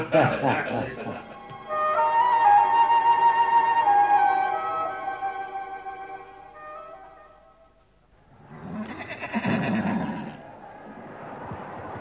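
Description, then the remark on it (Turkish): A horse lets out a long, loud whinny that wavers and slowly falls in pitch over several seconds, framed by short breathy snorts before and after. “Silahlar, atlar, develer alınıyor, Sakif ve Kinane kabilelerinden asker toplanıyordu.”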